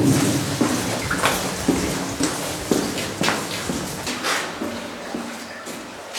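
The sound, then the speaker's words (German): Water drips from the ceiling of a tunnel station built in Black Forest granite, after rain over the weekend, in the first 20 meters of the tunnel. Irregular splats and plinks echo over a low, steady rumble, with no one talking. “Also so, die ersten 20 Meter sind auch der Bereich, wo es ganz stark von der Decke tropft, wenn es geregnet hat.”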